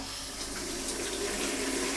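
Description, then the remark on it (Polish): Steady stream of water running from a tap into a fairly large bowl for preparing potatoes, the first step in cooking sauerkraut soup; a continuous splashing hiss that holds even for about two seconds without pause. “Oczywiście nalewamy wodę”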